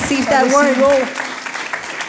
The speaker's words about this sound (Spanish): un fuerte aplauso, déselo, déselo.